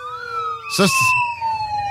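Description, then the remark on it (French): An English police car siren from England holds a steady, slowly falling wail throughout, fairly loud, while a person briefly speaks over it partway through. “C'est une sirène de police anglaise d'Angleterre.”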